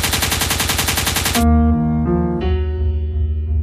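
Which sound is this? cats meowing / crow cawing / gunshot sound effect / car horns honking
gunshot sound effect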